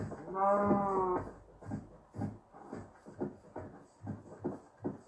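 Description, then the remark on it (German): A single loud sheep bleat rings out on a farm at the start, followed by a steady series of soft thumping, rustling sounds, like quick footsteps on the ground. “Mein Gott, Schaf, dich braucht niemand.”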